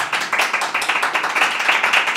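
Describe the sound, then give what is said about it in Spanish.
A live studio audience of invited guests applauds steadily, many hands clapping in a dense, continuous patter with a bright, crisp texture and no voices over it. “hay gente aquí en la sala y un aplauso, un aplauso, un aplauso.”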